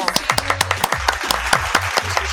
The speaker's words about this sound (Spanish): De nuevo, fuertes aplausos, vamos.